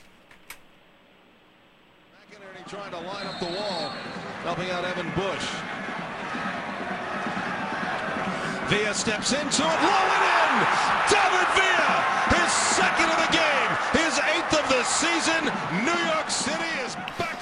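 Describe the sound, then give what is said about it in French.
At a soccer match at Stade Saputo in Montreal, after a brief quiet moment, a dense stadium crowd murmur rises, swelling into a louder roar with scattered shouts and sharp thuds as fans react to a free kick. “Mais je pense que nous allons écouter des petits sons du match.”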